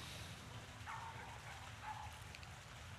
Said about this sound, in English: I can't help but correlate this little yapping dog with the topic of discussion I'm having right now with you. That dog has been barking since early this morning. It's almost noon. It has been barking incessantly